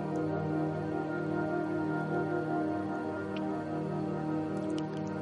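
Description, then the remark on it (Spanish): Firewood burning in a fireplace in a living room, a steady low rushing roar dotted with a few sparse, soft crackles and pops, with no voices. “En la chimenea que hay en el salón arde un poco de leña. Puedes escuchar el sonido, sentir el calor.”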